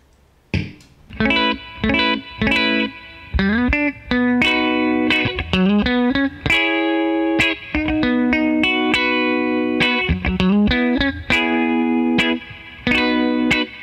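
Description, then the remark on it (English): A dry electric guitar through the preamp of a Topanga reverb pedal plays a run of plucked single notes and short phrases with some slides, warm in tone and steady in volume, with no voices. “I like how it has like a preamp kind of thing, so it kind of warms up the sound a little bit or just changes it a little bit.”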